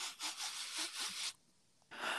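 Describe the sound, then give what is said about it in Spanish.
A voice imitates a breathing pattern with a quick run of harsh, airy breaths, almost like sawing, then a short silence before another breath starts. Fairly loud, with no talking. “Ah, y esa es su respiración.”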